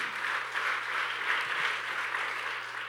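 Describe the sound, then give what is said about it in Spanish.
An audience applauds loudly for the Lord, a dense, steady wash of many hands clapping for a few seconds without pause, with no one speaking over it. “Dele otro aplauso fuerte al Señor.”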